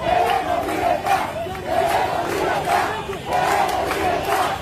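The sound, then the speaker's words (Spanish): Thousands of Cubans protesting in the streets of Cuba chant "Queremos libertad" (We want freedom) in unison, voices rising and falling in repeated rhythmic phrases, loud and continuous with a rough, shouted quality. “Te cuento que miles de cubanos tomaron las calles de la isla bajo el grito de Queremos libertad.”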